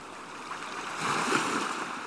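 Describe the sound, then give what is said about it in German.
Shallow water of the incoming Atlantic tide laps and washes gently over the muddy riverbed, reaching the first boats lying in the mud, a soft continuous swishing that swells slightly midway, with no voices. “Das Wasser des Atlantik erreicht die ersten Boote, die im Schlick des Flussbetts liegen.”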